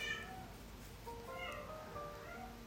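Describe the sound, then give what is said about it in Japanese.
A cat meows repeatedly in drawn-out, wavering cries, clear, with a few overlapping calls over low background noise and no talking. “猫泣いてますが聞いていただいてありがとうございました。”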